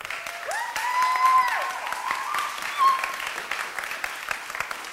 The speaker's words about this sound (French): Euh, on peut l'applaudir.